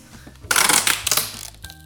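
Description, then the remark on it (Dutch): A crackly burst of handling noise from a roll of parcel packing tape used like a clamp on a glued furniture joint, about a second of crinkling and sticky rustling, with no one speaking. “En nu heb ik eh, van dat plakband waar je pakketjes dicht mee kan doen.”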